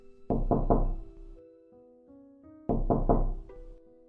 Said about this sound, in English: Later, Little Red Riding Hood arrived at her grandma's house. She knocked at the door.